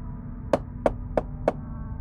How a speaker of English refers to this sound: He walked up the front steps and knocked on the door.